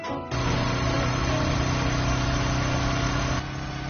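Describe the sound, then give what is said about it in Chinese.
A motorcycle engine, ridden in pursuit of a fleeing suspect, runs at a steady, loud drone for about three seconds. It has a low rumbling hum and buzzy upper tones, then eases off slightly at the end. No one speaks. “在这紧要关头，一个骑摩托车的身影追了上去”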